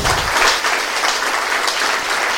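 A crowd applauds steadily, a dense, even wash of many hands clapping that holds at a fairly loud level for the whole moment, with no voices standing out.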